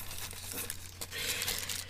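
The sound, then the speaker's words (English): Steady crinkling of plastic cookie packaging as it is packaged back up, with bursts of crisp, high rustling that swell louder in the second half. There is no talking and the handling noise is continuous. “I'm sorry, I'm sorry, I'm trying to package it back up nicely. This mic picks up literally everything.”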